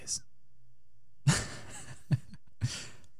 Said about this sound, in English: Uh, are you are you listening to the sultry sounds of the moose?